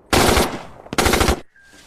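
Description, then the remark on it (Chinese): Two loud bursts of machine gun fire aimed at enemy engineers clearing mines, each a rapid, rattling string of shots lasting about half a second, separated by a brief pause, with no voices. “现在是机会了，给我专打敌人的工兵，给我开火！”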